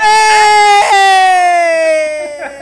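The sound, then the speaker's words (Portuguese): A police siren wails loudly in one long, steady, buzzy tone that glides slowly downward in pitch over a couple of seconds, with no one talking over it. “Será que a polícia vai tocar pra sirene pra, pra encerrar o programa, hoje?”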